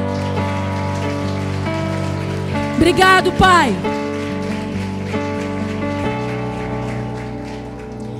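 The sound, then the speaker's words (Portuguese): An audience at a women's Christian gathering applaud the Lord. The applause is steady and dense and carries on for several seconds over sustained organ-like music, with a short spoken phrase rising briefly above it partway through. “Aplauda o Senhor.”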